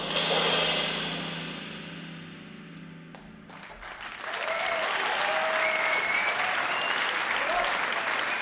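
Audience applause after a live jazz performance, a dense wash of clapping that eases slightly, then swells again with a few faint whistles and cheers over the steady patter.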